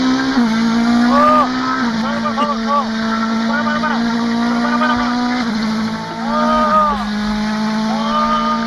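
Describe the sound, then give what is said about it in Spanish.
A race car driven by Fernando Alonso on a lap around the Jarama circuit roars steadily at high revs, loud, with brief pitch dips and swoops as it shifts gears and sweeps through corners. “me dio una vuelta por el jarama en un coche de carreras.”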